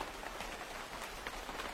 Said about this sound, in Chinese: 下雨了